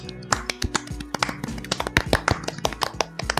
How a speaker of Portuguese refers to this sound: Eu adorei essa salva de palmas, totalmente sincronizada.